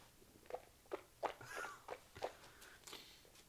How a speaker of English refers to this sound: Oh, he's kind of got his tongue out like a salamander, like a snake testing the air. Oh, he's. Oh. I saw perhaps a drop, but that's very impressive. Ooh, it's Can you hear the slurping?